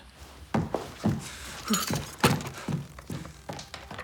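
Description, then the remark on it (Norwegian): Glass Christmas baubles shatter and clatter inside a box, a series of sharp crunching, tinkling impacts spread over a few seconds, with no voices. “men når hun åpner den, ser hun at alle julekulene er gått i stykker. Alle kulene er knust.”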